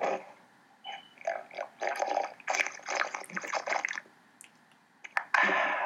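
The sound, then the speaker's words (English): Loud, close-up gulping and slurping of water right at the microphone, a series of wet swallows and sloshing bursts over several seconds with no talking. “Don't be just slugging water like that on the mic, man.”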